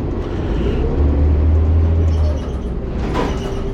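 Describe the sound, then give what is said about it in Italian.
A city bus, fleet number 5606 with plate ET550GC, idles with a deep, steady engine rumble, then a brief pneumatic hiss and clunk as its doors open near the end. “5606 la matricola del mezzo di questo autobus.”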